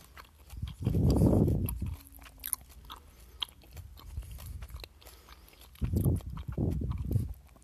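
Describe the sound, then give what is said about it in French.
Moist chewing of soft, squishy candy, coming in two louder bursts separated by a quieter stretch of faint mouth sounds, with no talking. “Ils sont euh, squishy pas mal. C'est euh, vraiment des petits bonbons tendres, c'est, c'est le fun.”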